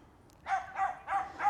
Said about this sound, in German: Ähm, sorry für den Hund.